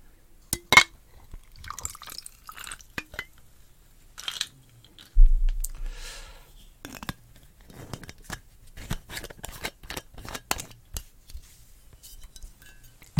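Bombay Sapphire gin poured into a glass, with a low glugging burst partway through, surrounded by scattered clinks, taps and small crackling clicks from the glass; no voices.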